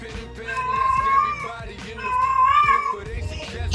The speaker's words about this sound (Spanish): Cállate. Pinche gato, cabrón, no mames.